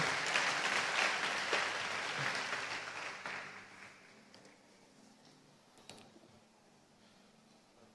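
An audience breaks into a loud burst of clapping that holds for a few seconds, then fades away, leaving a quiet room tone with a couple of faint clicks.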